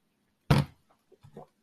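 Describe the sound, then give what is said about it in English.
A sharp clunk like a glass being lifted or set down, then a few soft gulps as someone drinks ice-cold water from a glass, with no talking. “I'm gonna take a second one.”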